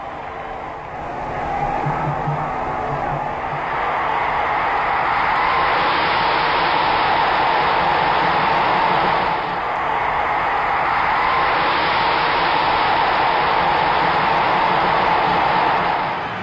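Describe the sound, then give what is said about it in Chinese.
A stadium crowd at the 1970 World Cup final roars and cheers for Brazil's four goals and for Brazil lifting the Jules Rimet Trophy, a dense, continuous wash of noise that swells and briefly dips midway, with a thin, muffled old-broadcast quality and no clear voices. “咱们听的这段音频里边，就大家可能会听到五段欢呼，前四段就是巴西的四个进球，而第五段就是巴西队捧起雷米特杯时候的欢呼。”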